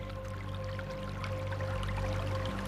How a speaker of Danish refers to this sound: Det er sensommer, og luften er lidt lummer, som den kan være lige før regn. Vi er taget ned til bækken, Ellebækken. Den løber i et lille skovområde lidt uden for Køges centrum.